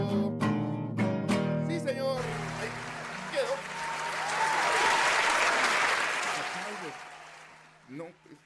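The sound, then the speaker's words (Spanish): A few final musical notes give way to a long, dense wave of applause that swells and holds steady like a standing ovation, fading out with a couple of brief voices at the end. “Sí, se siente como la ovación, así de... Ah. Standing ovation.”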